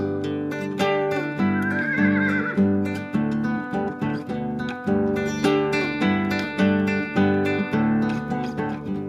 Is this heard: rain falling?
no